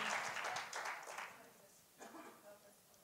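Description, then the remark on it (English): An audience claps hands unto the Lord for about a second, a soft, dense patter, then fades as a voice briefly begins speaking. “Oh, let's clap our hands unto the Lord and magnify Him just for a moment.”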